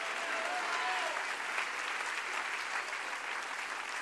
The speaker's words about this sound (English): Everybody that's happy to be in church on Wednesday night, clap your hands real big and say hallelujah to that.